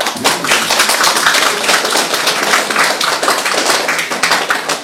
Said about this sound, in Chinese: 请坐，请坐啊，来掌声。